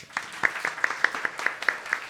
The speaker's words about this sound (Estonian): teeme aplausi